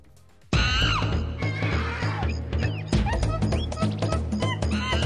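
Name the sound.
monkey calls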